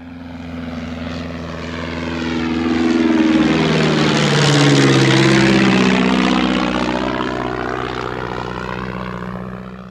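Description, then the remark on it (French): Deep, throbbing drone of the radial engines of a Swiss Super Constellation four-engine propeller airliner, swelling as it passes by and then slowly fading. There is no talking. “On peut y voir le démarrage de ces magnifiques et gigantesques moteurs radio et y écouter le doux bruit qu'ils font.”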